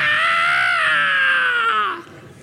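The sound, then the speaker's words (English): A voice imitates a child's loud, sustained scream of terror on a bicycle he had forgotten how to stop: one long shrill cry that slowly drops in pitch for about two seconds before cutting off. “It was a scream of terror”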